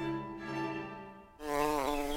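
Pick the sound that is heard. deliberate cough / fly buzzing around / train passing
fly buzzing around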